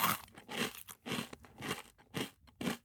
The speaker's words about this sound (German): wie ich äh, hier Kekse esse